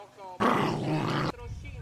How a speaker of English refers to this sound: Saucepan has a dull growl. He doesn't like Frederick. I pat him on the head.